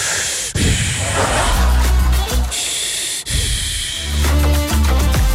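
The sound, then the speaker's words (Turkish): A voice imitates loud, noisy breathing through a large nose: two long rasping breath cycles, each a hissing rush of air that shifts into a rough, vibrating snort-like rumble. “Büyükse de nefes alırken ses çıkıyor.”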